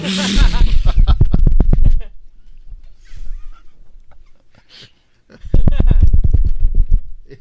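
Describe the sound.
A voice imitates the rattling, crooked wheels of a shopping cart full of food with two loud bursts of rapid, rhythmic clattering sounds, separated by a quieter pause with faint background noise.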